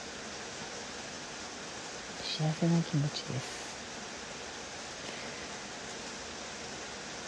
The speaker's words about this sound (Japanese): 水の音が聞こえるね雨音がこうやって聞こえるだけでもなんかすごく現れるような気持ちというか潤ってきますね。